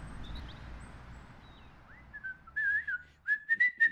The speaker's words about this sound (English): I always whistle when I'm nervous.